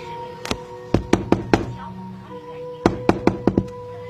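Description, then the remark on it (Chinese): Urgent knocking on the door of a rented room in the middle of the night: one sharp knock, then a quick burst of four, a short pause, and another rapid run of about five loud raps over a faint steady hum. “可就在我搬进来的第一天晚上，半夜突然被一阵急促的敲门声吵醒了。”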